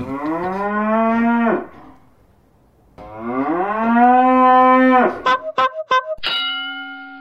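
A cow moos twice in long, drawn-out calls separated by a brief pause, loud, followed by a few short abrupt bursts and a steady tonal blare at the end.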